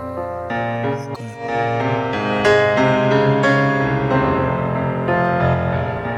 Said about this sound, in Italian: Sentite la frase del pianoforte adesso, veramente storta, ma bellissima. Eccola.